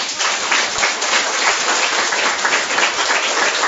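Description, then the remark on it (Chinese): Steady audience applause at a talk, given to perfectionist-type leaders, fills the whole stretch, a dense wash of many hands clapping at an even, loud level with no voices standing out. “我们要把掌声送给完美型的领导人”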